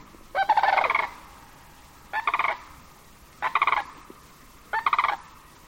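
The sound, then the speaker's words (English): Returning sandhill cranes and snow geese calling in flight, flight upon flight, in four loud, rattling bursts spaced about a second apart, each a rolling, trilled cry ringing out over a quiet outdoor background with no talking. “Others follow them now, flight upon flight, their great wings hush shushing, and the snow geese among them warbling.”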